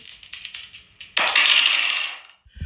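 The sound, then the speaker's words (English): A few light clicks and taps, then a loud, sustained clattering rattle of dice tumbling on a hard surface for about a second before stopping. No one speaks. “We're gonna roll these dice.”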